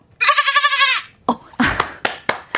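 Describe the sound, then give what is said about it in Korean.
A person imitates a mother goat's bleat, giving one loud, wavering nasal call that lasts close to a second, followed by a few short, sharp knocking or clapping sounds. “한 번만 엄마 염소.”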